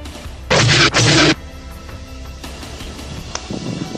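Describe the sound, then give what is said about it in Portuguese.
Two loud, harsh gunshot blasts fire in quick succession, distorted, then fade into quiet background noise; a sound effect in a tabletop role-playing game for a droid's shot hitting a character in the stomach. “Tu toma 11 de dano e o tiro vai na boca do teu estômago.”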